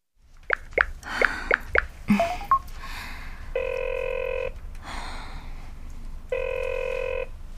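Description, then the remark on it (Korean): A few quick tapping beeps like phone keys being dialed, then two long electronic phone rings, each a steady buzzing tone separated by a pause, clear and fairly close with no talking. “괜찮으니까 전화 좀 받아요”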